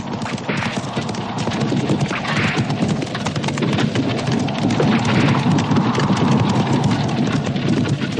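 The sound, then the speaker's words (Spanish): Rapid, dense hoofbeats of horses galloping in a frenzied race, pulling a carriage with no coachman, clattering steadily and loudly for the whole stretch, mixed with a rushing, rain-like wash of noise and low rumbling; no voices. “Un látigo invisible azuza los caballos en frenética carrera.”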